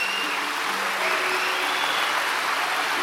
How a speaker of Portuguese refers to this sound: E antes da gente orar, eu quero pedir para toda a igreja, para a gente dar um aplauso bem forte para todos esses irmãos e irmãs, bem forte.